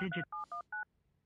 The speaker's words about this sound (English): So let me hit the dial in thing. You guys might hear part of this. Thank you for calling Colin Studios host. And- See, it's logging into the system.